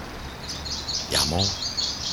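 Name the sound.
small birds chirping outdoors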